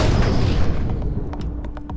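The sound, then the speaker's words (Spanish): A loud, deep rumbling blast fills the first second, then a handful of sharp gunshot cracks follow in quick, uneven succession, punchy, with no voices. “Las preguntas del universo las respondo a balazos.”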